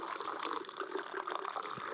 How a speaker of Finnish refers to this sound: Kaatakaa vaan itse sinne asti, niin se on kaikista varmin tapa. Hyvä. Joo. Kaatakaa vaan vielä vähän se.